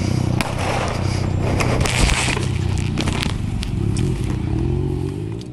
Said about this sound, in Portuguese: Antes de fugir com a moto, um dos criminosos ainda atira para o alto no meio da avenida movimentada.